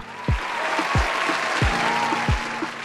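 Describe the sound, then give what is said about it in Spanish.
A dense, steady wash of loud crowd applause and cheering, a cheer for fifth-year secondary school students, with four deep thumps landing in an even rhythm roughly every two-thirds of a second. “Una barra para todos los chicos y chicas de quinto de secundaria que siempre nos acompañan.”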